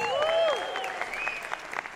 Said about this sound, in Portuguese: eu quero uma salva de palmas para ele, que é o nosso homem de honra, é o nosso homenageado.